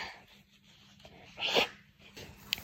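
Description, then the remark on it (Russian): A single quiet sneeze from a woman, a brief breathy burst in the middle of an otherwise hushed stretch, with a faint click near the end and no talking. “Чихнула.”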